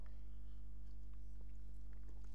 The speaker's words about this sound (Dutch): Even een slokje water ertussendoor.